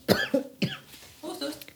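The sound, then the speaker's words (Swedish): A person with allergies coughs twice, sharply and in quick succession, followed by a softer throat-clearing rasp, all fairly loud and with no talking over them. “Ja, jag med min hosta. Jag har inte covid, jag har allergi.”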